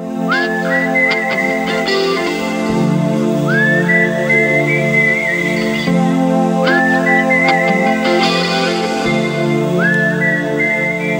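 A clear whistled melody rises and glides in four repeating phrases, carried over a steady backing of mellow rock instrumentation, with no one talking.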